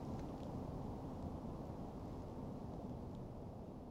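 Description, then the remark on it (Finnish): A steady, low rumbling city hum fills the whole stretch, a dense drone with no distinct events, heard from an open outdoor spot by the seashore with a faint airy hiss above it. “Jännä fiilis, kun toi, toi kaupungin taustahumina tuolla ja sitten toisaalta kuuluu tommonen...”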